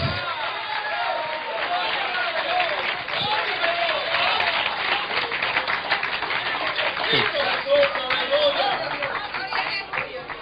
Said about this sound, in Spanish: Qué poquitos aplauden, gloria a Dios.